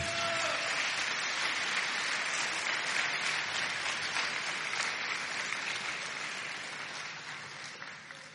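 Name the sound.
audience clapping hands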